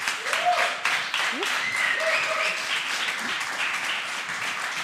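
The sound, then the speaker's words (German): Sustained audience applause, a dense, steady wash of many hands clapping at even loudness, with a few faint voices and brief whoops rising through it. “Eine neue Folge Junge Naiv, Erstmal mit Applaus.”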